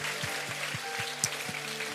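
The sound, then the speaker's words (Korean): An audience applauding: dense, steady clapping from many hands fills the whole two seconds at an even level, with a faint regular low thump pulsing underneath roughly four times a second. “아, 이번 파나마의 놀라운 승리의 영광을 주신 우리 주님께 영광의 박수 한번 드립시다.”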